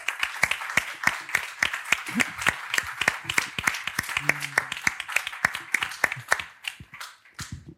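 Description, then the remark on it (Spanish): An audience at a live event applauds the sign language interpreters, many hands clapping in a dense, crackling patter that holds strong for several seconds before thinning out toward the end. “con streaming de vídeo y con traductores de eh, idioma de signos, que por cierto aprovecho para que le deis un aplauso, llevan todo el día.”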